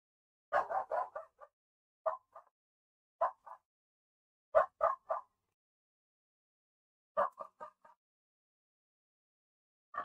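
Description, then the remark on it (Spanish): A female dog barks in short, sharp bursts, grouped in quick runs of two to five barks separated by brief pauses, moderately quiet, with no one talking. “Ah, qué pinche perra, güey.”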